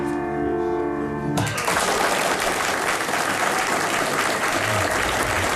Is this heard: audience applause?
yes